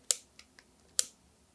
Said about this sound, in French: Round 2. de euh, la neige fraîche, là. Quand j'ai dit vraie neige, les complotistes, on se calme. OK, la neige fraîche. Briquet.